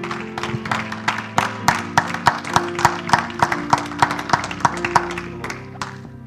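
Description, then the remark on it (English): An audience at a church service claps their hands in praise of God in a steady, fairly loud rhythm, sharp claps landing about three per second over a low sustained hum of music or organ tones. “Give him a hand clap of praise before you're seated tonight.”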